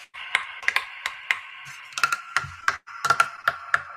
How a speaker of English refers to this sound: But of course, I've been playing the drums, so I'd like to introduce my kick drum a snare, another snare, my hi hats,